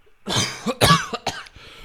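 A burst of harsh, raspy coughing, several loud hacks in quick succession with a rough throaty tail, followed by a quieter trailing cough. No one speaks.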